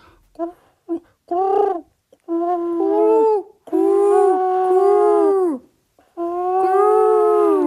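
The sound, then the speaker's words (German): A person imitates a pigeon's coo: a few short hooting notes, then longer, wavering, howl-like tones with brief pauses between them. No other sounds. “Ich, wir können ja beide nicht mal eine Taube nachmachen.”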